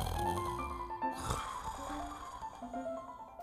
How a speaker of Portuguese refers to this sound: O gigante e os soldados logo pegaram no sono e começaram a roncar.